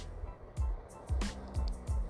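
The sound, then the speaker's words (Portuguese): A low rumble of street traffic with many cars circulating, several brief whooshing swells as vehicles pass, repeating every half second or so against a steady background hum. “pessoas não param na rua, muitos carros circulando. E diante desses carros estou eu aqui com você”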